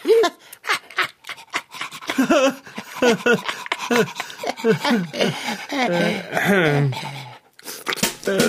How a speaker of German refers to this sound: Du wirst es nicht glauben, Fahrradschrauber, aber für einen Moment habe ich befürchtet, dieser Mops wäre der Hund von Frau Sparbrots neuer Mitbewohnerin und würde deshalb jetzt auch hier wohnen.